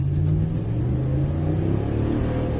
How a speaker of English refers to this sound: hear that fucking engine, the Hemi? fire up and accelerate. Zero to 60, baby, and I don't know what.